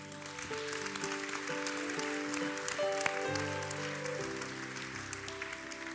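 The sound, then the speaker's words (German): An audience breaks into steady, dense applause, a crowd of many hands clapping continuously for about six seconds, with sustained keyboard chords playing underneath. “Lass mal einen fetten Applaus geben.”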